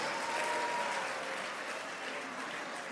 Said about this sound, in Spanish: Caballeros, solo escuché aplausos femeninos. Aplauda porque si no se va a meter en un lío.